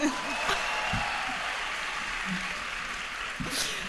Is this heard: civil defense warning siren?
no